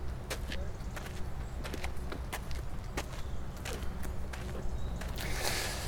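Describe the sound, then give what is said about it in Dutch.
Footsteps crunch along steadily outdoors through a cemetery toward a grave, a series of crisp steps over a low background rumble, with no one speaking. “Ehm, ik stel voor dat we eerst naar het graf van mijn broer gaan lopen.”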